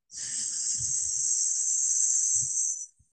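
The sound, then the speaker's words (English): A long, steady hiss of breath pushed out through the mouth during a relaxing breathing technique, bright and sustained for nearly three seconds before it cuts off, with faint low thumps beneath and no talking. “Inhale gently through the nose and exhale the hiss.”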